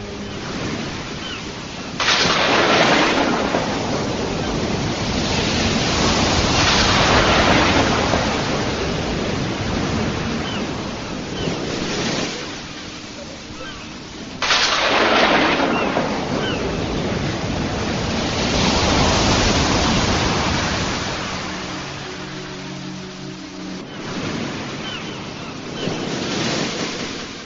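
Rough sea surf roars continuously, with two big waves crashing in heavily and washing out, amid a windy, blustery rush of noise. No voices.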